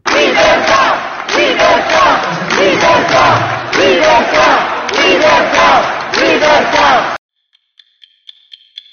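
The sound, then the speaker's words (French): Opposition deputies in the Italian parliament chant loudly in unison, shouting "liberty" over and over in a steady rhythm for several seconds, demanding the Prime Minister appear before them, then fall silent before a few faint, high-pitched tones. “Liberté, liberté. La révolte est arrivée à l'Assemblée italienne, mes amis.”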